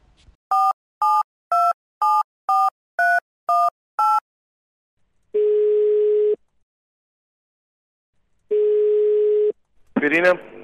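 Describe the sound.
A rapid string of eight telephone keypad beeps, then two long, steady ringback tones separated by a pause, heard clearly through the line before a voice briefly answers at the end.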